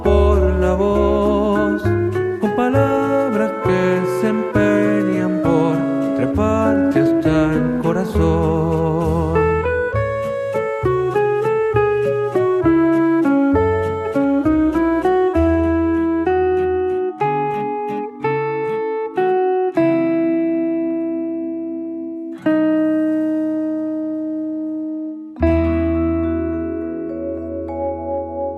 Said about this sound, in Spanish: esta breve pausa musical